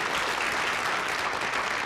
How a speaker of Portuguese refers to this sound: Agora, Rodrigo, aí você põe aquelas palmas